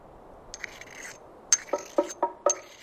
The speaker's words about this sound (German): Das leise Klacken hörte nur Iranella. Es klang wie Stein auf Stein oder nein, Metall auf Stein.